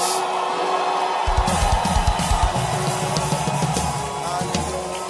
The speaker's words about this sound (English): Oh, I said, Are you excited to be in church? You know, give the Lord a hand clap, a shout.